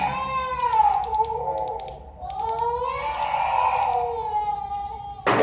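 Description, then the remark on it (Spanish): A child crying in an abandoned sanatorium, in two long, drawn-out wails with rising and falling pitch, steady in loudness, with a few faint clicks and a sudden burst of noise at the end. “Escuchamos un LLANTO en sanatorio ABANDONADO”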